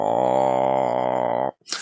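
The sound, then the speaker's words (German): A sustained, throaty growling voice sound made from the throat as a voice warm-up exercise, held steadily for about one and a half seconds, low and buzzy, followed by a short breathy exhale. No words are spoken. “die Stimme auch mit so Stimmübungen ein bisschen aufzuwärmen, so ein bisschen summen oder so Ploppgeräusche oder auch so aus der Kehle raus mal so”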